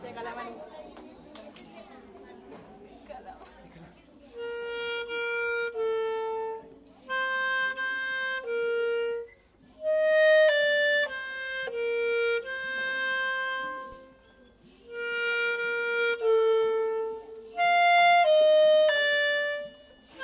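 A clarinet plays a short melodic passage of sustained, singing notes in phrases, loud and clear, after a few seconds of faint background chatter from a crowd of children.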